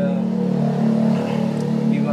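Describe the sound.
A loud street-racing car engine revs steadily for about two seconds, a deep droning rumble that holds its pitch, with voices faintly mixed in beneath it.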